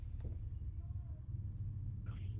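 A steady, dense low rumble of an engine heard from inside a moving car driven in California while the driver talks on the phone, constant throughout with a faint brief hiss near the end.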